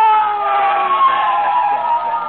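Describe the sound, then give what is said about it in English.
A police siren wails loudly and steadily, a sustained high tone with a slight wavering rise and fall, sounding alone without any voices. “Maybe it's a fire engine, Molly. Maybe our house is on fire.”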